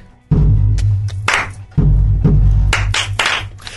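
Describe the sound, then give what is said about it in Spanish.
Sharp hand claps fall in a steady, very basic rhythm focused on the silences, interleaved with deep, booming bass drum hits that ring out underneath; loud, with no talking. “pero quien está ahorita en un momento en el que pueda usar sus manos, eh, podemos iniciar con los aplausos.”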